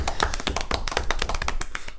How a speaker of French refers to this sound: Bientôt un an les gars. Allez, bravo. Go. Voilà. Ouais, ça s'applaudit, ça s'applaudit, attendez.